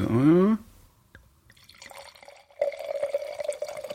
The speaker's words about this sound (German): Ich mache jetzt mal das Einschenken mit ähm, äh, Atmo. Pass mal auf. Ah, wahrscheinlich funktioniert das.